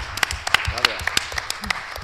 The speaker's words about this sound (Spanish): Sí, Hostia, eso merece un aplauso.